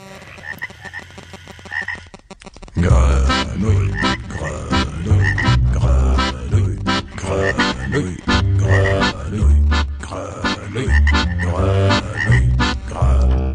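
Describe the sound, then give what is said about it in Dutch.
A loud, dense chorus of frogs croaking in overlapping, rhythmic pulses. It starts after a couple of seconds of quieter background and then continues steadily without pause. “De kikkertjes, de kikkertjes zijn aardig om te zien.”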